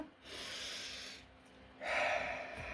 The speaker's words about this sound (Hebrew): אנחנו מדברים על זה המון, נמשיך לדבר על זה בעתיד, ניקח לנו נשימה